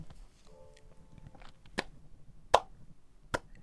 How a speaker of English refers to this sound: Slow clap.